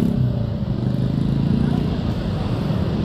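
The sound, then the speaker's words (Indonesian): Steady low rumble of passing car traffic from outside, a continuous engine drone that holds at an even, moderately loud level throughout with no clear breaks. “ini ada suara-suara mobil nggak sih berisik nggak sih maaf ya kalau berisik”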